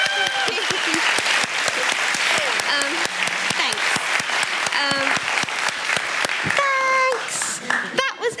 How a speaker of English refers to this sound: Like, yay, coming out in front of hundreds of people. Can I have a little round of applause?